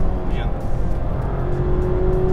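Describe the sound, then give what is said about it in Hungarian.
A Mazda MX-5 sports car engine pulls hard above 6000 rpm in fourth gear, its steady droning tone climbing slightly as it accelerates, heard loudly from inside the car with a voice faintly underneath. “És nagyon jó húz, ha még 6000 fölött itt, Igen. negyedik, nem esik sokat a fordulat, elképesztő.”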